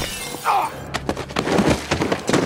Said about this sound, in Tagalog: Isang humahagibis na motorsiklo ang biglang nakabundol sa akin.